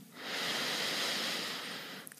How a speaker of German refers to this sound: Wir atmen durch die Nase ein, ganz tief in den Bauch. Ein, ein, ein, ein.